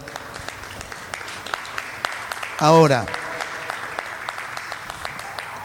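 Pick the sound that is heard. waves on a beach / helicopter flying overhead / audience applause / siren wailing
audience applause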